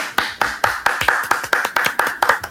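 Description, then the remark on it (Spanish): Steady, rhythmic hand clapping in applause for a thrown shoe, about a dozen sharp claps in quick succession at an even pace, fairly loud, with no talking over it. “Un aplauso al zapatazo”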